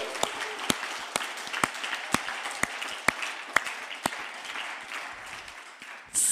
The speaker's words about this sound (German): Hey Leute, Jesus ist in unserer Mitte, lasst ihn uns feiern und richtig großen Applaus geben. Woo!